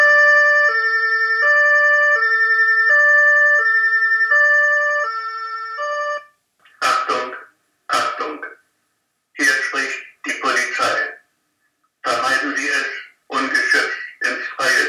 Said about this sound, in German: Hör mal, die Polizei, ein Streifenwagen.